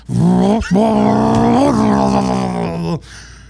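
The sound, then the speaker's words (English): A man vocally imitates the revving engine of a 392 Charger muscle car coming down 84th Street, a loud, buzzing drone that briefly breaks, then surges and sustains for a couple of seconds before cutting off. “He rip up, bust a U-turn, come down the side. 392 Charger.”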